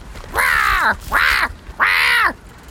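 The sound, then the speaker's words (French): A bird named Jacasse calls out three times in quick succession as it dives after a gold candy wrapper, each cry harsh and raspy, loud, separated by short pauses with no voices present. “Ni une ni deux, l'oiseau plonge en piquet pour rattraper le papier doré, pour finalement le laisser tomber.”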